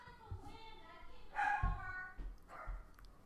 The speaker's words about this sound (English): Well, we have our retarded dog upstairs barking. Could you please silence that dog? My audience is uh, being disturbed.